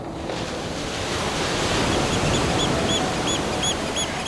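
Gentle sea waves wash steadily onto a shore in a continuous, soft roar, with faint repeated bird chirps high above the surf and no voices.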